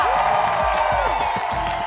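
A Brazilian TV show studio audience cheers and applauds loudly and continuously, a dense wash of clapping and shouting with no pause.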